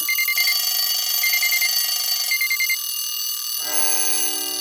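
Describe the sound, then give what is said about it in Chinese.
All the clocks of the Clock Kingdom ring together at once in a dense, bright metallic jangle, with repeated short trilling alarm bursts layered over a steady high ringing, shifting to a different bell tone near the end. No one speaks. “整个时钟国的所有时钟都同时响了起来。”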